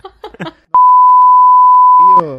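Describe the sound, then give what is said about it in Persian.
A loud, steady electronic censor beep runs for about a second and a half, cutting across speech that reveals details of coming episodes; a voice talks just before it and resumes right after. “البته این چیزایی که من گفتم روش بوغ بود و قراره تو اپیزودهای سه چهار تا اپیزود آینده بشنوین ما بوغ گذاشتیم که شما قافلگیر بشید”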